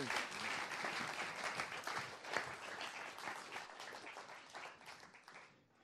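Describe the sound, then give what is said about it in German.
An audience applauds to thank a guest who has just spoken, a dense wash of many hands clapping at once that holds fairly level for several seconds before thinning out toward the end. “Okay, danke vielmals, geben wir einen Applaus.”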